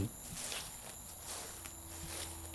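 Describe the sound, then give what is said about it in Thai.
Slow, scuffing footsteps of someone dragging their feet across a gritty surface in front of a house at night, several soft shuffling strides over a steady nighttime insect hum, with no voices. “ตกใจยิ่งขึ้นไปอีกเมื่อได้ยินเสียงคนเดินลากขาอยู่หน้าบ้าน”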